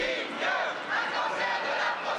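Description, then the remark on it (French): A crowd of activists at 1995 protests in France, during the presidential campaign, shouts slogans at a candidate, from archive film shown at the Mucem; a dense, loud wall of raised voices that holds steady throughout the brief stretch with slight surges in intensity. “Les slogans que vous entendez en sont issus.”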